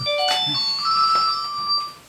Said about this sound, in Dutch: Telefoon.